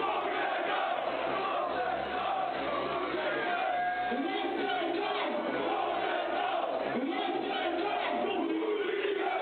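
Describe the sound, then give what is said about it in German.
A large crowd of Rotterdam football fans sings a loud, steady chant in unison, voices massed together with a rhythmic, rolling melody that carries on without pause. “Du hast hier auch einen Sound mitgebracht, einen Chant, der gesungen wird von den Fans.”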